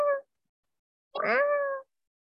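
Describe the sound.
A voice imitates a kitten's meow: a short clipped mew, a pause, then a longer rising-and-falling meow, clear with no other sounds around it.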